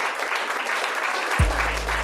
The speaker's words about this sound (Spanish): el DJ Negro eh, es digno de un aplauso, sinceramente. Vamos a darle.